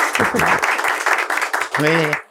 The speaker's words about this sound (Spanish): Qué aplauso más fuerte.